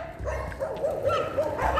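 Several dogs bark and yip repeatedly outdoors on a street, overlapping in a continuous, moderately loud chorus, with a low background rumble of street noise.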